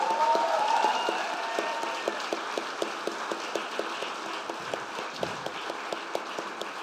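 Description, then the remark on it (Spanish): A standing audience applauds the Lord Jesus steadily, many hands clapping in a dense, sustained wash, with some sharper individual claps cutting through in a loose rhythm; no one speaks over it. “Vamos, dele con ganas ese aplauso.”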